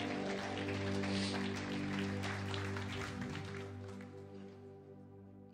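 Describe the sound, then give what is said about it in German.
An audience in a hall gives God a big round of applause after a prayer, a dense, steady wash of clapping over a sustained low musical tone, thinning slightly toward the end. “Lass uns Gott noch einen riesen Applaus geben.”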